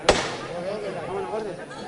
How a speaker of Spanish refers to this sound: Dale fuerte. Ahí está. Primer golpe de martillo